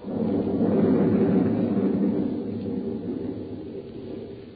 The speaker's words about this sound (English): There was thunder and lightning around me, too